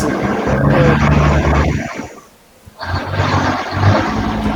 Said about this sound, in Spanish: Esperemos a que pasen los camiones.